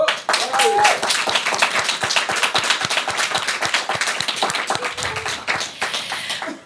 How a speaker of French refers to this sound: On l'entend très peu, mais c'est réellement l'une des personnes sans qui ce podcast n'existerait pas, donc je propose qu'on l'applaudisse très fort.